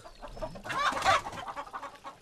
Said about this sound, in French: J'ai amené avec moi ce jeune coq.